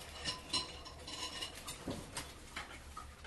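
Dishes and cutlery clink lightly and irregularly during cooking, with several bright metallic taps and scrapes over a soft steady background hum. No one speaks.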